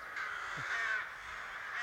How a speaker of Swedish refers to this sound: råkorna som låter så här, det är inte aftonfalkarna. Aftonfalkarna säger chit, chit, chit, chit, chit, chit.